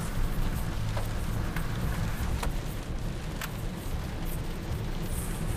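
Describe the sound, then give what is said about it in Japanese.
Heavy rain pours steadily while driving on Route 24 toward Nara, around Okubo and Uji, Japan: a dense continuous hiss over a low road rumble, with occasional sharper taps of drops striking. No one speaks. “わかりますかね皆さんとにかく雨がもうめちゃめちゃすごいえぐい”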